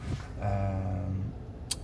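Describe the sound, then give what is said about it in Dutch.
Steady low rumble of road noise inside a moving car, with a droning engine-like hum swelling briefly in the middle and a small click near the end. No one speaks. “Uh, we rijden wederom nog steeds voor deze opname rond de auto.”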